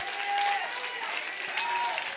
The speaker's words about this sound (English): I clap my hands and stomp my feet and shout.